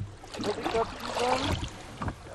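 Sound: rowboat moving through water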